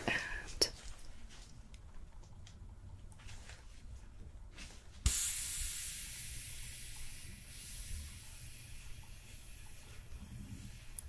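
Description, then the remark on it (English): A blood pressure cuff on a patient's arm inflates and then deflates, heard mainly as a low, steady hiss of escaping air that starts abruptly midway and continues softly to the end. “I am gonna get your blood pressure next. I'm gonna come in here, get the cuff on your arm.”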